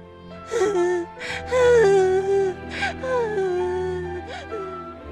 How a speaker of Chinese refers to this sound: 这时，餐厅的一个角落里有人放声哭了出来。